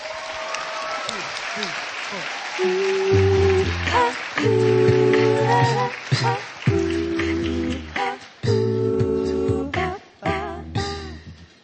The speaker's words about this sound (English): How about that? Round of applause.